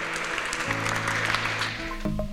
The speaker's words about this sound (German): Hey, gib nochmal jeder Person einen fetten Applaus.